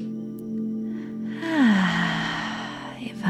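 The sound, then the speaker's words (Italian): During a guided meditation, a slow, deep breath is drawn in and released, a soft airy rush heard over a steady low drone with no talking. “Ah, fai un altro respiro profondo.”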